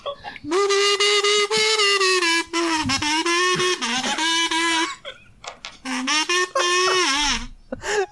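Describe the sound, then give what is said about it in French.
Loud, buzzy kazoo music plays a tune in a series of nasal, reedy notes, mostly held and steady in pitch with brief breaks between phrases, and no one talks over it. “C'est parti pour du kazoo.”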